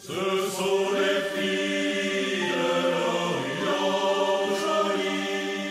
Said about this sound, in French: C'est un chant de marin, ça, ça semble.